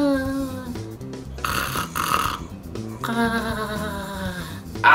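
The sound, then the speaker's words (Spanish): A voice imitates eerie, ghostly snoring: drawn-out wavering breaths with breathy, hissing rasps between them, fairly loud, with no words spoken. “Y sí, hay muchos tipos de ronquidos. Están desde los ronquidos de fantasma.”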